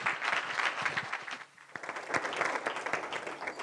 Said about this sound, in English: A round of applause.